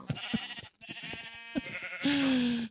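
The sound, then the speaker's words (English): Sheep kept for wool bleating on a farm in a video game: a few short bleats with clicky game sounds, then one longer, steady bleat at the end, moderately loud with no talking. “got Pleat bleats for wool.”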